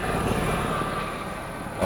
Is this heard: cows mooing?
no